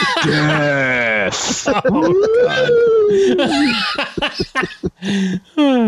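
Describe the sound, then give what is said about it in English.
A voice mimics a wailing siren, its pitch sliding up and then slowly sagging back down, wrapped in giggling and laughter. “Oh, I'm going to use that siren um, sound. I like it.”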